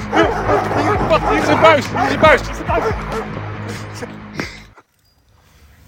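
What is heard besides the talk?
dogs barking and whimpering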